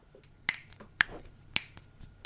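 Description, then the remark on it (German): Knuckles cracking as the hands are bent and all the fingers are cracked, four sharp distinct pops spaced about half a second apart, with a few fainter crackles in between and no talking. “Das waren alle meine Finger okay. die geknackt ah. haben.”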